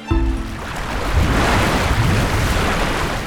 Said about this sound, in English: That's the sound of a vortex a vortex is when air or water swirls, 漩涡, around and around in a circle.